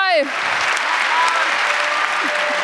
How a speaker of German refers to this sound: Dankeschön das war das 31C3, ne? Wow. Vielleicht noch ein Applaus wert? Das war das 31C3.